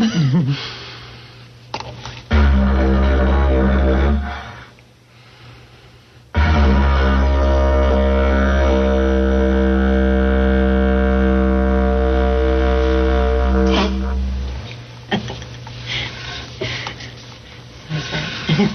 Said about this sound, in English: I wonder if you'd give us a, a tone on the didgeridoo.